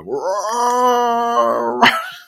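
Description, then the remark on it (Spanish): A dog lets out a long, loud groaning yawn, a drawn-out vocal moan lasting about two seconds that ends with a sharp snap of the jaws closing. No one speaks. “Buah, que estáis perdiendo a Bostezar como un oso grizzly increíble.”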